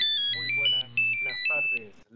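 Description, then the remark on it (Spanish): A mobile phone ringtone plays a bright, stepped electronic melody, repeating in short bursts, as a mother preparing lunch answers it, with indistinct voices and background chatter running underneath. “Suena el celular y la mamá contesta mientras siguen preparando el almuerzo.”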